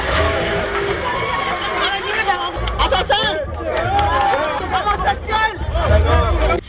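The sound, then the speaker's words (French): A crowd of many curious onlookers, waiting outdoors during a trial, chatters; many overlapping voices form a steady, fairly loud hubbub, with a few individual voices rising briefly above the babble. “Les nombreux curieux qui se sont déplacés attendent d'or.”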